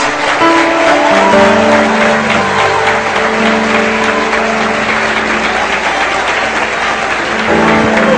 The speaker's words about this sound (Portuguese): Aplauda Jesus.